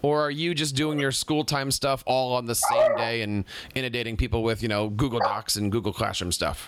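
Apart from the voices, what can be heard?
dog barking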